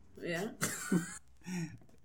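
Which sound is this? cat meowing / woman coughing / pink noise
woman coughing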